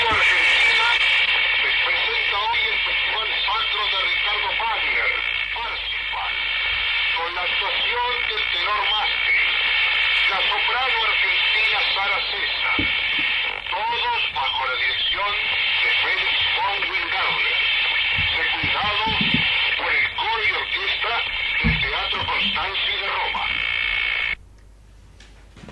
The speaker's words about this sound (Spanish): Bueno, realmente una joya hermosa. Nos encantó esta ópera de Wagner, transmitida desde la terraza del Coliseo. Y bueno, empezó Radio Argentina acá, la verdad que muy emotivo.